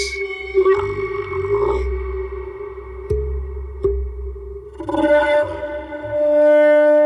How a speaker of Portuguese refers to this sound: sem dúvida, é um instrumento que toca sons aterrorizantes.